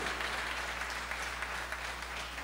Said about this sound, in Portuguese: Aleluia! Pode aplaudir Jesus mesmo, que é Ele que faz isso.